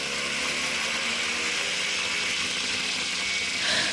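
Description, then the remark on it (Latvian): Steady, droning engine noise of a motorized hang glider in flight over Riga, loud throughout, with a constant buzzy hum and rushing wind layered over it. “Šī ir skaņa no lidojuma ar deltaplānu.”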